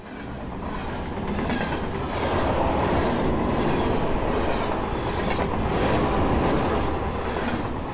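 train approaching on rails

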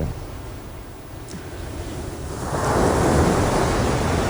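sea waves

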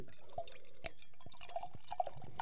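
liquid being poured

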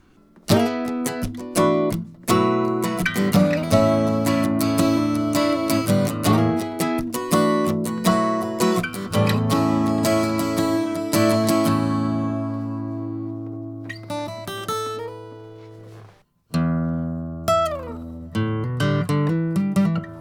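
acoustic guitar playing

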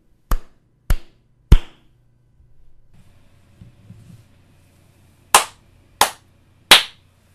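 rhythmic hand clapping

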